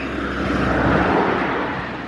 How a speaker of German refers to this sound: Es kommt ja schon wieder ein Auto, ist ja auch nicht zu fassen. Eine ganze Zeit ist hier kein einziges vorbeigefahren, kaum nehme ich was auf. Zack.